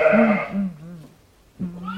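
A sheep bleats loudly on Koganeyama Farm in Wakuya, Toda District, Miyagi Prefecture, Japan, a long wavering call, then after a short pause a second bleat begins. No one is speaking.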